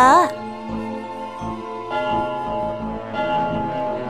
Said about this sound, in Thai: เก๋งเก๋งเก๋งตอนที่เทพวารีมาถึงเสียงระฆังครั้งแรกกระดังขึ้นมาพอดี